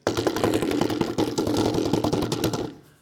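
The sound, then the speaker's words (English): A voice imitates a bedroom door handle rattling at night: a loud, rapid, buzzing clatter that keeps a steady rhythm for nearly three seconds, then cuts off abruptly. No words are spoken. “My door handle is rattling like this.”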